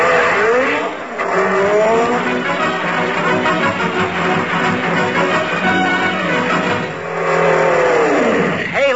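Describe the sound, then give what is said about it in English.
A car roars by with engine revving and tires screeching in sweeping, rising and falling whines, a long loud skid that fades mid-way and surges again near the end; someone briefly laughs. “I don't know why these drunken drivers...”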